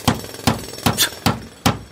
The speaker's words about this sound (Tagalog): Alas dos ng madaling araw nang magising siyang muli dahil sa ingay ng barena at mga nagpupukpukang martilyo.